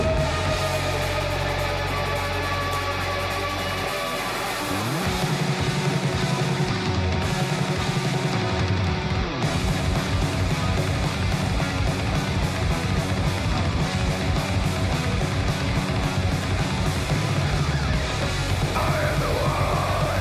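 A dense, loud death metal track with harsh screamed vocals over distorted guitars and rapid, pounding drums that kick in after a brief low rumbling intro, playing continuously without any speech.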